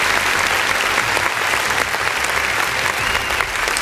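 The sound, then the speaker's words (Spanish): Sustained applause for Tony, an entrepreneur, a dense, steady wash of many hands clapping at an even loudness for several seconds, with no voices standing out. “Aplausos para Tony, este gran emprendedor”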